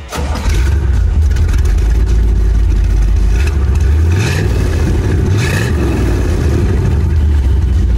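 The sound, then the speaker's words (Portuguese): The big V8 engine of a 1964 Corvette Stingray rumbles loudly, revving up twice with rising pitch sweeps before settling back into a deep, throbbing idle, with no one speaking. “E um dos meus favoritos, depois que eu andei, foi justamente o Corvette Stingray 1964.”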